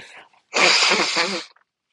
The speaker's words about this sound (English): I'm about to blow my nose, guys. I'm sorry.